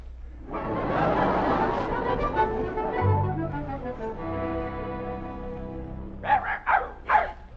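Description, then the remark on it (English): Dogs playing together yowl and whine in long, wavering cries, then break into three quick, sharp barks at the end, sounding excited and playful; one of the dogs is Buttons. “Smith, playing like a couple of puppies.”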